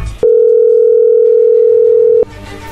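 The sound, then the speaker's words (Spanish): A steady, loud telephone dial tone as a call is being placed for the 'chocolatazo' call, holding one unbroken mid-pitched note for about two seconds, with faint background chatter before and after it. “no haga ruido, ahí se está marcando.”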